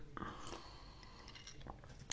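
A few quiet mouth sounds of someone taking a small sip of hot pennyroyal-mint herbal tea: soft slurps and wet swallowing clicks spaced over a couple of seconds, with no talking.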